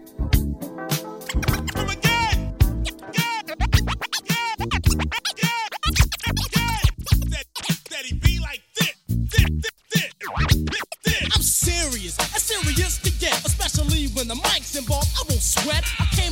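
A hip-hop remix plays loud, driven by a punchy beat with rapid turntable scratches cutting through, filling the whole stretch without pause.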